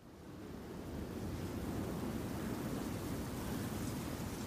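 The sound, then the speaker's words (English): A steady, broad roar of sea surf swells up over the first second and holds, a continuous wash of waves breaking on the shore with no voices present. “Is that what the sea sounds like?”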